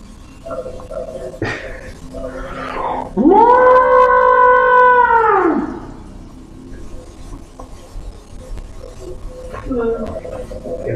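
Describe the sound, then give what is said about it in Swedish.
A loud, drawn-out call of a monster out in the forest, part squeal and part trumpet like a pig crossed with an elephant, rises, holds for a couple of seconds and fades, with quieter rustling before and after. “Nu hör ju ljudet av den här monstret ute i skogen. Som en blandning av en gris och en elefant.”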